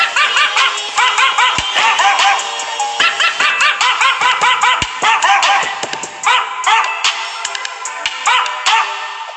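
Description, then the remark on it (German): Rapid, high-pitched dog yips and barks repeat loudly in quick bursts throughout, a continuous excited yapping from a dog in a video game that is standing up on an elevator, with no talking. “Der Hund steht übrigens hier oben.”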